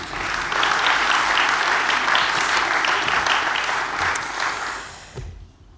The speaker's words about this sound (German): Vielleicht ein kleiner Applaus? Wäre das möglich?